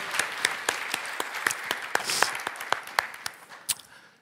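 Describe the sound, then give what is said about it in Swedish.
An audience at a Citykyrkan Stockholm service applauds to thank the worship team, a dense patter of many hands with sharp individual claps standing out in an irregular rhythm, moderately loud and steady before tapering off at the end. No one speaks. “Kan vi eh, tacka, tacka dem med en applåd?”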